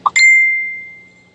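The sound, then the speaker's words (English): A water bottle being drunk from is tapped: a soft tick, then a sharper tap that rings out as a clear, bell-like ping, fading over about a second. No voices. “out of a bottle, and I'm going to tap on it just a little, little.”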